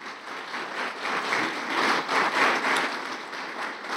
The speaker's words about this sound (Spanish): Dale fuerte ese aplauso a Jesús.